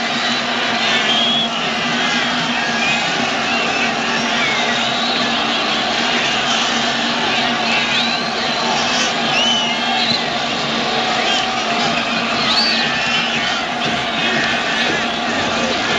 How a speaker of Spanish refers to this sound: Vamos a escuchar el ambiente, solo sonido ambiente de ese estadio de Yakarta, donde en el 65 España está perdiendo con Alemania.